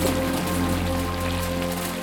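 Steady rain from a thunderstorm in the Himalayas, heard from a shepherds' shelter hut, patters down in a continuous, even hiss with no letup, a low sustained hum sitting underneath; no voices, and no thunder stands out.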